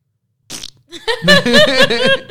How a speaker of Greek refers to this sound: Κλανίτσα.